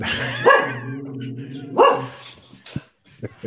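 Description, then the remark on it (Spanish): A dog barks twice, loud, about a second apart, with a low, drawn-out vocal tone between the barks and a few quieter clicks and murmurs afterward. “el... perro de no le gusta el mandar a …”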